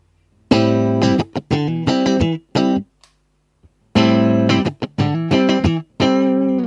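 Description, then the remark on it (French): An electric guitar plays a funky rhythm built from a blues: bright, chunky chord stabs in short syncopated bursts, broken by brief pauses and a few soft muted scratches, with no voices; the strumming hand is kept relaxed, almost nonchalant. “Comment créer une Rythmique FUNKY à partir d'un BLUES ?”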